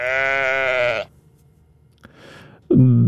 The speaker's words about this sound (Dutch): Dat is ehm, een schaap, denk ik, die honger heeft. Die gewoon wil eh, eten hebben. Die, die niet content is met wat dat ze nu heeft.